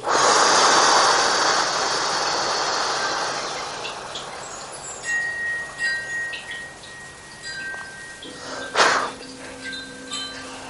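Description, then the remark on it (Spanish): A long, deep breath of air rushes out loudly at the start and slowly fades, followed by quieter faint sounds and a brief soft breath near the end, as a person breathes during a guided two-count breathing exercise, inhaling fully and exhaling. No one speaks. “Y al exhalar sentimos nuestra respiración.”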